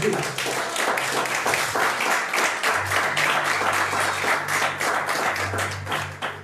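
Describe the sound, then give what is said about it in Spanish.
An audience applauds steadily, many hands clapping in a dense, continuous patter at a fairly loud level, with a low hum sustained underneath for the whole stretch. “Denle una prenda de palmas”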